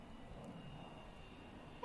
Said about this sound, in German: Es ist wirklich schön hier, nicht wahr? Vor allem dieses Auf und Ab der Flugzeuge, das beruhigt auf eine Weise.